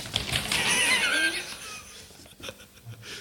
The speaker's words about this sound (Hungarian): Mutasd ide. Nem túlzok kigördített másfél méter papírt, ami tele van írva.